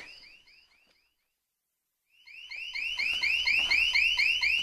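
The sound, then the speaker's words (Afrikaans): A house alarm, deliberately set off, sounds in rapid repeated electronic chirps, fades briefly to silence, then returns louder, pulsing steadily with a low rumble underneath. “dis dis dis my huis se alarm.”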